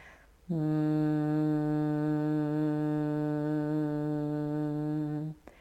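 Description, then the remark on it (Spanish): A single person hums a long, steady, low buzzing tone in imitation of a bee, held evenly for about five seconds before stopping abruptly, as a bee-breath breathing exercise for concentration during a meditation. “El primary breath, para los que no estuvieron ayer, es el sonido de la abeja.”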